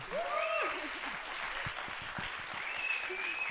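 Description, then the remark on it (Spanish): Steady audience applause for a composer and university professor during the radio programme Viernes de Intersecciones: a dense wash of clapping at even loudness fills the whole clip, with a few voices whooping and calling out over it. “También tiene un doctorado en CalArts en composición ejecutante y es profesor de la Universidad de las Artes en Guayaquil, Ecuador, para quien pido un fuerte aplauso en este Viernes de Intersecciones.”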